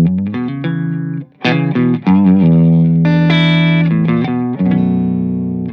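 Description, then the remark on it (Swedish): An electric guitar with old strings plays through an amp with reverb: a steady run of single notes and ringing chords, loud and sustained, with no talking over it. “Nej eh, men så den är reverb i den här stärkan så att jag...”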